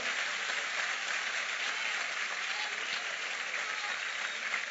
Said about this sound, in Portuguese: Aplauda o Senhor forte em nome de Jesus.